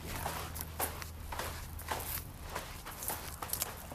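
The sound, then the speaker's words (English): Steady footsteps crunch over loose rocks at a walking pace, each step a gritty, scraping burst, with a low rumble droning underneath and no voices. “who love ASMR, I'm sure they're getting a kick out of hearing the the feet, the, the crinkle rock, crankle, the, the crunching rocks.”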